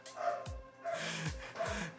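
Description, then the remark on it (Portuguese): A dog barks three times in a steady rhythm, each bark a short, harsh burst that drops in pitch, moderately loud, with no talking over it. “Realmente o cachorro tá empenhado aqui a latir.”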